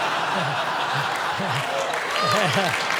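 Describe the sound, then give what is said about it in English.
A live audience applauds steadily throughout, a dense crackle of many hands clapping, while a man's low chuckles and bursts of laughter rise over it at intervals. “I don't know why you're applauding.”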